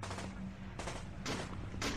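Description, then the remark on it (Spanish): Heavy .50 caliber machine gun fire in repeated loud bursts, sharp cracks over a deep continuous rumble, powerful with no voices. “le soltamos una ráfaga de balas al ser con figura de perro humanoide”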